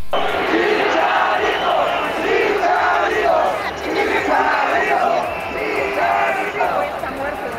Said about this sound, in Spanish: Chicharito, Chicharito, Chichal. O sea, la, afición lo pide a gritos, digo, mucho tiene que ver, ¿no?